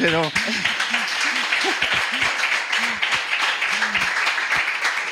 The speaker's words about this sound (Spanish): Jo, pues otro aplauso, ¿no? Otro aplauso,